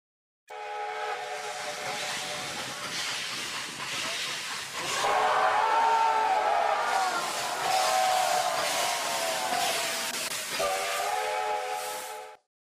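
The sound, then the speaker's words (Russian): A steam train's whistle sounds in one long, steady, chord-like blast over a bed of hissing steam, growing louder partway through and wavering briefly before cutting off. “эшелоны вонявшие дымом и табаком теплушки, набитые серыми, невеселыми, выскакивающими за кипятком на утоптанный снег людьми”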